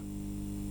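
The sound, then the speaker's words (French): A steady, low electrical mains hum with stacked harmonic tones, constant and unchanging throughout, like a magnetic ballast coil buzzing up close with faint background hiss. “c'est le son du courant de 50 Hz qui circule dans la bobine.”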